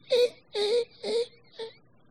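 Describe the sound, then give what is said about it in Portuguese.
A person imitates a dog whimpering: four short, high, nasal whines in a steady rhythm, the last one briefer and softer, with no other talk. “Quem sabe imitar cachorro gemendo aí?”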